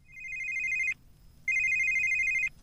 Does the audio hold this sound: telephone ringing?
yes